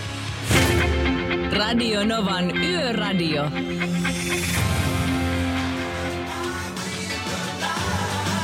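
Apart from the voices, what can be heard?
song played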